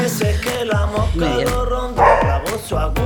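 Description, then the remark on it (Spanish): A dog barks again and again in quick succession, roughly half a dozen loud yaps with a steady rhythm and short gaps, and no voices in between. “Un ladrido de un, perro.”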